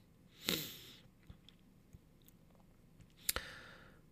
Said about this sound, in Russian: Ну так э, ты продолжаешь писать что-то, в кнопки нужно ебашить сверхсильно, понятно.